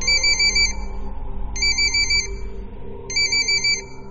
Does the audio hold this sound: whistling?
no